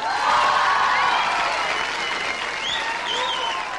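A live audience applauds steadily for a singer as she is introduced, a dense wash of many hands clapping at an even loudness, with a few higher cheers and whistles rising through the noise.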